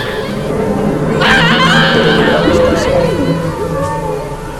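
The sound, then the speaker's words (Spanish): A murky, distant hubbub of overlapping voices speaking strange tongues, with wailing, moaning cries, some laughter and a few shrill, scream-like rises swelling in the middle, all smeared and echoing as if from far away. “De la nada se escuchaba a lo lejos quejidos, gritos, lenguas extrañas sonaban, alaridos, algunas risas y gritos lejanos.”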